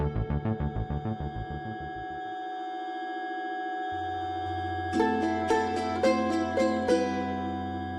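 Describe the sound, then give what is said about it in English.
A quick run of repeated electronic beeps opens, followed by a steady sustained tone, then a few sharper, brighter beeps return near the end. No voices are heard. “there's a beep beep Beep beep. Beep beep. Why are the beeps?”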